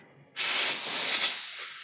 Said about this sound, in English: Yeah, heavy breathing.